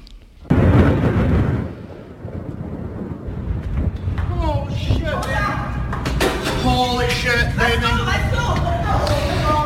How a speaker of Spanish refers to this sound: Pues tras ese anuncio ya se han ido produciendo explosiones en distintos puntos del país ucraniano.